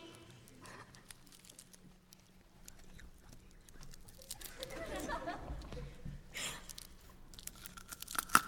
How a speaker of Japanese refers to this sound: で ASMR でハッピーターンパリってやっておおってなんなん